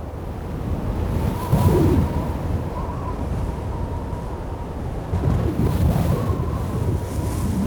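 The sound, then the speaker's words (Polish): Wind blows steadily in a low, rushing roar, swelling into two stronger gusts that buffet the microphone before easing back. No voices, just the continuous blustery rumble. “faktycznie wiatr jest takim bardzo mm, symbolicznym gestem, przewietrzenie czegoś, czy wpuszczenie powietrza”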